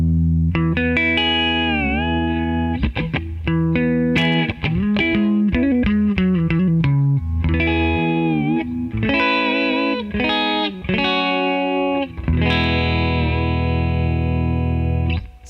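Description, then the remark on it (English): A StingRay electric guitar plays loud, distorted lines, with quick runs of notes giving way to longer, ringing held chords and bends. No one speaks over it. “Well, let, us yeah, let's hear some of what the uh, the stingray can do.”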